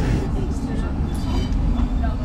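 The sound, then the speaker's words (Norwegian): A tram rumbles along at speed during a high-speed car chase down Grünerløkka, its heavy, steady low engine and wheel drone filling the space, with faint higher squeals and rattles drifting over the constant roar. “En high speed car chase ned Grünerløkka som førte til at trikken kolliderte inn i trikken foran seg,”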